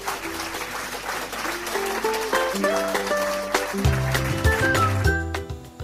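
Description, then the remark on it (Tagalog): Loud, steady clapping from many hands, given to show readiness for the day's lesson, runs throughout, mixed with a bright melodic tune that steps through notes and deepens toward the end. “Pumalakpak nga ng malakas kung talagang handa na kayo.”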